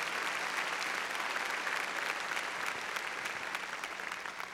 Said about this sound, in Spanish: A ver, démosle palmas fuertes, hermano, ahí a nuestro Señor.